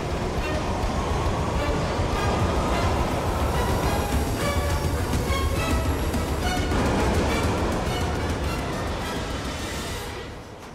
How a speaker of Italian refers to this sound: treno sta partendo. Che faccio, salgo?